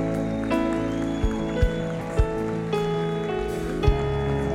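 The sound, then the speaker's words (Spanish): A church audience applauds, urged on as applause for the King, in a dense, steady patter that fills the whole clip, over sustained keyboard chords, with a few sharper thumps standing out from the clapping. “Vamos iglesia, dale un mejor aplauso al rey.”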